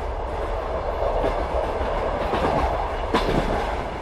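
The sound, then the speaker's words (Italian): An old, rickety Trenitalia fast regional train in Italy rattles steadily along the tracks, a loud continuous rumble with clattering wheels and a brief sharper clank near the end. “Chissà quanti di voi hanno passato ore delle proprie giornate in compagnia di questo rumore è il rumore di un treno regionale veloce di Trenitalia, uno di quelli vecchi e sgangherati, in cui o si sente caldo o si gela.”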